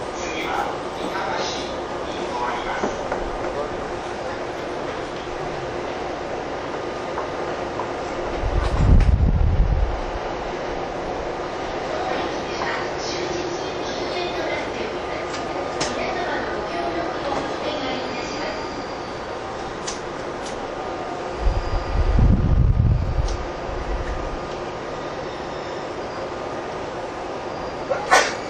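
A TWR 70-000 series commuter train on a Saikyō Line rapid service between Shin-Kiba and Akabane, Japan, bound for Kawagoe, running with a steady, broad mechanical rumble, swelling twice into heavy low-pitched surges before settling back to the same continuous drone.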